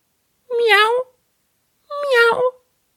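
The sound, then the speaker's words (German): Two drawn-out meows, each about half a second long with a clear pause between them, voiced close and fairly loud by a person imitating a cat. “Da der Durst der Katze aber nur noch größer geworden war, antwortete sie bloß”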